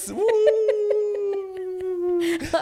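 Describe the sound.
A person imitates a wolf howling, holding one long, steady wavering note for about two seconds before it breaks off into a short breathy burst.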